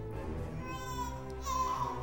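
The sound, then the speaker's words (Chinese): A newborn baby wails without pause while being rocked back and forth by a teacher. It is a strained, tonal cry that swells louder and climbs higher in pitch toward the end. “可糟糕的是，老师不是小宝宝的妈妈，摇的也不太舒服，小宝宝哭得更大声了。”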